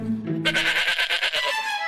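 sheep bleating

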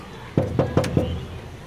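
knocking on a door

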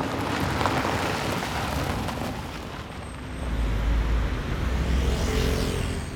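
car driving

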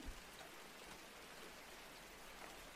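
gentle rain falling

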